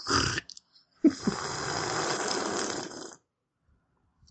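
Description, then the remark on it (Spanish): A short breathy noise, then a sustained slurping sip of Tila Naranjo linden tea with lemon from Mercadona lasting about two seconds, a soft airy draw of liquid with faint gurgling, followed by silence. No one speaks. “Tila Naranjo, le voy a dar un sorbito, al con limón esta vez.”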